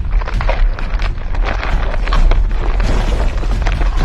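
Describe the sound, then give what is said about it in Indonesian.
A heavy, continuous low rumble with creaking, cracking bursts of wood and debris as an apartment building shakes, like an earthquake; loud, with no voices. “Dia bergoyang-goyang menakuti mereka.”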